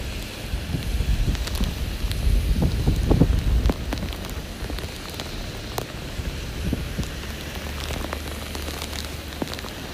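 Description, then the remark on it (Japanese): Steady rain patters down in a dense, continuous hiss, with scattered sharper drops tapping on a surface and a heavier, rumbling surge early on before settling into an even downpour. No one speaks. “マジだよこの雨戻んないやつがでも先行ってみるの危険なんだこれ”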